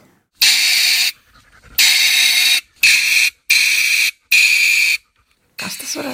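A dental drill drilling teeth whines in a series of five loud, high-pitched bursts of about half a second to a second each, separated by brief silences, with a rougher noise starting at the end.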